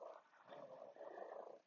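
A cat lying on an art book purring, a soft continuous rumble that pulses gently with its breathing and holds steady for a couple of seconds, with no talking.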